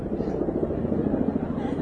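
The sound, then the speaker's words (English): Large green and brown twin-rotor military helicopters with two propellers and four wheels fly overhead, their deep, rapid rotor thumping and engine drone steady and loud throughout, with no break in the noise. “And some green and brown helicopters come flying through.”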